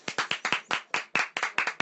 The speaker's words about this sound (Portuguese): Aplausos! Aplausos!